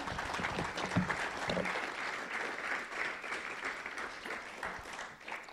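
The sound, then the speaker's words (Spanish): A church audience breaks into sustained applause for the Father, the Son and the Holy Spirit, a dense, steady patter of many hands clapping at an even level for several seconds, with no speech over it. “Y si le puede dar, este, le puedo dar un aplauso al Padre, al Hijo del Espíritu Santo.”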